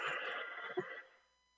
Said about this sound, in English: it's like I'm falling in love with you music. And he's got a dead woman in his arms. It's like a sitcom, another day.